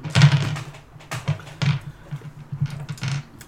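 A hundred-sided percentile die, rolled to decide the weather in a tabletop game, rattles and tumbles across a hard surface, a quick irregular run of sharp clicks and knocks that slows and settles, with no talking.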